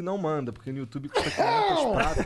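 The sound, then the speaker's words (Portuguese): A man speaks briefly, then a loud sneeze bursts out midway, a sharp noisy blast followed by a drawn-out voiced tail. “saúde, que é para você não mandar”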